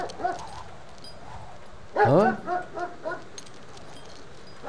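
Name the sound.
dog barking and whimpering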